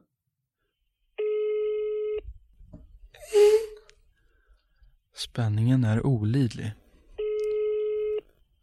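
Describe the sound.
Two long electronic ringback tones on a phone line while calling a friend to check how she is doing, each about a second, separated by a pause in which a person speaks briefly and a rustle is heard.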